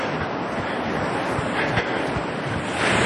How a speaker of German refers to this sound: Und der Atlantik schwappt hier gerade mit, na, eigentlich kleineren Wellen, kann man sagen, an den Strand. Also ich habe hier auch schon höhere Wellen erlebt. Im Moment ist er ganz zahm.